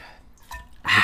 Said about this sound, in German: Wir, äh, nachdem wir beide uns erstmal hier kurz mit einem Schluck Wasser erfrischt haben